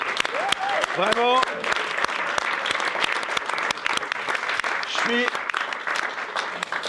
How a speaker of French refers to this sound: Et on peut applaudir le public.